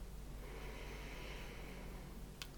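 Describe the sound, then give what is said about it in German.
A long, slow breath drawn in through the nose, a soft airy hiss that swells and fades over about a second and a half, quiet with no talking. “Ihr atmet durch die Nase ein”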